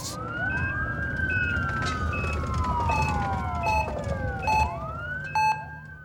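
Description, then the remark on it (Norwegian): An ambulance siren wails continuously, its pitch sweeping slowly up and down over a low traffic rumble, with short repeated electronic beeps layered on top. No one speaks. “Vi må ta og ringe ambulansen, så ikke den patetiske idioten er dauer og ødelegger podkasten vår.”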